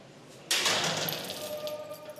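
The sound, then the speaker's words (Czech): A metal barred gate at the boundary of a corridor slams shut with one sharp clank as someone approaches, followed by a metallic ring that slowly fades away. No voices accompany it. “to je hrozně takový strašidelný zvuk, když to cvakne vždycky tam říšiš.”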